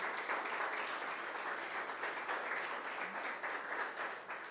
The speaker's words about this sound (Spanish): Muy bien, entonces un aplauso para el Señor.